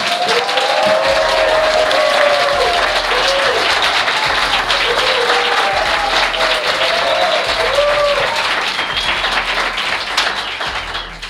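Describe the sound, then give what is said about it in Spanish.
A large live audience of nearly 100 people at the Palacio de Benacazón in Toledo applauds steadily for about ten seconds, with scattered cheers and whoops rising above the dense clapping before it starts to fade at the end. “Oye, qué animados están, parece que hacen esto muy a menudo, ¿verdad?”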